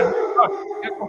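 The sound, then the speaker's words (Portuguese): A dog named Pinhão barks in the background, a few short, sharp yaps in quick succession, moderately loud against a low, steady murmur. “E tem um cachorro latindo no fundo.”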